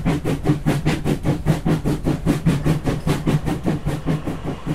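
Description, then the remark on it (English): A steam train chugs along steadily with rapid, rhythmic puffs of exhaust over a low rumbling engine, loud throughout, with no voices present. “Steam trains.”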